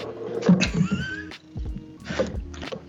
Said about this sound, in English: I heard your cat at the end.